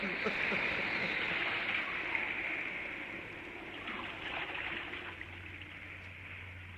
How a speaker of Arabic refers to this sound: ده الهوأ يا اخوانا مكتوب علينا الله شوف الموج ازاي زي الجبال